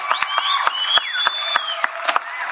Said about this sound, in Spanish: ¡Bravo! Un aplauso.